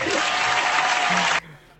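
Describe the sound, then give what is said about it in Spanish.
A burst of loud applause congratulating a contestant who gave the right answer, dense steady clapping for over a second, then it cuts off abruptly, leaving quiet background. “Aplausos para ti.”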